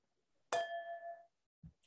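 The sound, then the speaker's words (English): Two wine glasses holding Chardonnay clink once in a toast, a bright ring that hangs for under a second before fading, followed by a soft low thud. “cheers to that.”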